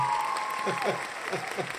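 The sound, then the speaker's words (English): A crowd claps steadily for under two seconds, a dense, crackling patter of many hands at moderate loudness, with voices faintly audible beneath the applause. “why y'all clapping for that, yo?”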